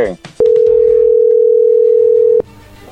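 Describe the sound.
A single loud, steady telephone tone at a constant mid pitch as a phone call is placed, holding for about two seconds, starting and stopping abruptly, with brief bits of speech around it.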